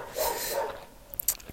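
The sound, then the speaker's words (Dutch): Guard dogs bark in the background: a sustained yelping burst followed by a few sharper, scattered barks, fairly faint with no one speaking. “Er zijn hier heel wat waakhonden. En als je langs een huis loopt, dan eh, willen ze elke keer weer aanslaan.”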